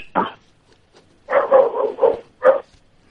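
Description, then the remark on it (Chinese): A caller's dog, heard over a phone call, barks repeatedly: one sharp bark, a pause, then a quick run of three loud barks and a final single bark, with no talking. “你说话， 喂 你那狗叫的比你动静都大，我们怎么对话？”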